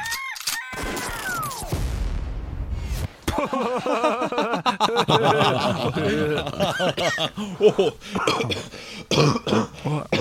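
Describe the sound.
Close-up sniffling and throat-clearing coughs at the start, followed by a stretch of rough, breathy coughing mixed with chuckles and voices.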